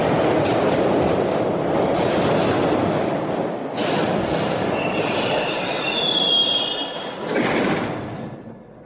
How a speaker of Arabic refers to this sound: فأسرع المهندس إلى عتلة الفرامل وأدارها دورة كاملة وصدر عن ذلك صوت مرتفع حيث اندفعت وسائد المكبح إلى مكانها